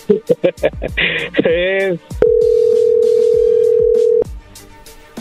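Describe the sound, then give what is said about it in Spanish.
A quick run of short telephone dialing beeps gives way to a warbling burst, then a steady, loud ringing tone holds for about two seconds before cutting off, with faint background voices. “Bueno, pues ahí se está marcando, no haga ruido, ¿ok?”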